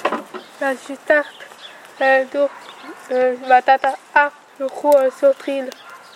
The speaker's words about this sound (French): C'est elle que vous entendez dans son jardin avec ses poules.